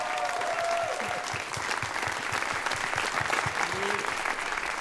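An audience at a show claps steadily for several seconds at the close of the first half of the programme, a dense, even wash of many hands with a few faint voices mixed in underneath.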